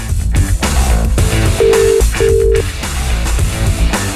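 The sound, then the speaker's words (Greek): Two short, steady telephone ring tones sound one after the other near the middle, set over busy, loud background music with no one speaking. “Σήκωσε καλέ το τηλέφωνο.”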